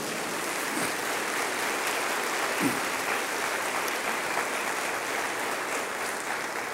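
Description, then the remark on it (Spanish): A church audience applauds the Lord during a sermon, a dense wash of many hands clapping at an even loudness throughout, with no voices standing out above it. “Denle un aplauso al, al Señor.”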